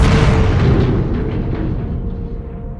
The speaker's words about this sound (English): a tremendous explosion, and they see this rising cloud of dust about a mile away across the valley.